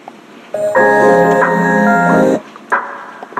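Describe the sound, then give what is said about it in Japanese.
A short burst of a beat with its bass cut by an equalizer and a muffling filter applied, sounding thin and slightly muffled; sustained chordal tones play loudly for about two seconds, then stop abruptly, leaving a brief reverberant tail from added reverb. “このビートとかは、もう、あのー元のビートを本当に簡単にフィルターかけただけなんで、フィルターとエフェクトでイコライザーでちょっと低音カットして、”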